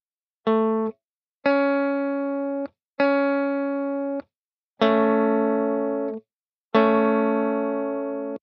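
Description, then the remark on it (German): Five sustained, evenly spaced guitar tones with abrupt starts and stops, rising from single notes to fuller major-chord voicings on the last two, forming an A major chord, clear with no talking. “Und schon haben wir einen Dur-Klang, einen A-Dur.”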